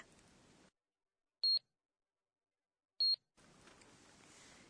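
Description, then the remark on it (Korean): Two short, high-pitched electronic beeps from a barcode scanner at a checkout, evenly spaced about a second and a half apart, with silence between them and faint background noise before and after. “계산대 등에서 바코드를 읽는 소리인가요?”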